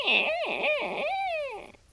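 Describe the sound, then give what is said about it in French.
A small monster hermit crab's cute little growl, a high, warbling voiced sound rising and dipping in a few quick swoops for about two seconds, fairly loud, probably a voice imitating the creature. “C'est pas avec des grognements aussi mignons que tu vas faire peur.”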